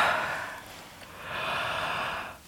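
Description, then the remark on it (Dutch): A long, breathy yawn: a drawn-in airy inhale, a brief pause, then a longer sighing exhale that fades out. No one speaks. “Ja, gaap.”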